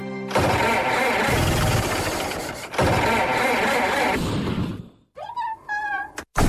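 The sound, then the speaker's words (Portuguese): A car engine, damaged by putting the wrong oil in it, cranks and struggles to start in two long, loud, grinding attempts that fail to catch, followed by a brief high, wavering whine. “Fogo, já lixei o motor ao homem.”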